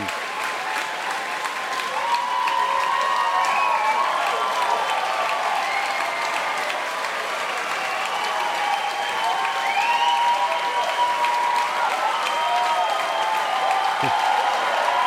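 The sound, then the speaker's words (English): A crowd applauds steadily and loudly for the whole stretch for a solo performer who played with just a guitar, a dense wash of clapping with scattered whoops and whistled cheers rising through it. “This crowd loves him for good reasons.”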